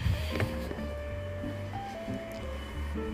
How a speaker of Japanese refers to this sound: それでちょっとここ乾燥機がボーって言ってるんですけどうるさいかな